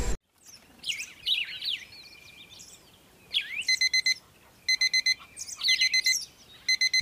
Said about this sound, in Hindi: सुबह के छह बजे मयंक के बिस्तर के पास रखी अलार्म घड़ी टिन टिन करके बज उठी